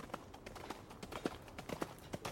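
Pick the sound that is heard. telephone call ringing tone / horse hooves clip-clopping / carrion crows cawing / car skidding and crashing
horse hooves clip-clopping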